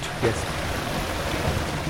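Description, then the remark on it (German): Water gushes steadily from a thick pipe rising through the floor of a hall into a huge elongated sandbox running through the whole hall, a continuous rushing wash of noise with a brief surge near the start and no pause throughout. “Plötzlich flutet daraus Wasser in einen riesigen länglichen Sandkasten, der durch die gesamte Halle führt.”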